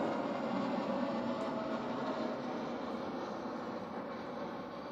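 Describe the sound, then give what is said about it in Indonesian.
A steady, broad roar of a large airplane passing overhead, loud and sustained for several seconds and slowly easing off, with no voices heard. “Bentar gede pesawat”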